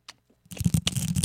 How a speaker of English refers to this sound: that's what you're hearing is the typing and the extraneous noise